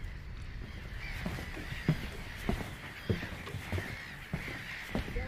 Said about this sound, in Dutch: Ik hoop dat jullie de vogels kunnen horen. Het is hier een uur of negen nu. Het waait aardig. Voor voor of vier. De zon zakt. En de lucht is vol met vogel.